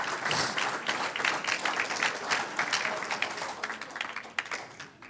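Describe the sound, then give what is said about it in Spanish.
A church audience applauds the women of the church, a steady dense wash of many hands clapping at a fairly even loudness for about five seconds, with no voices standing out. “Un aplauso a las damas de esta iglesia.”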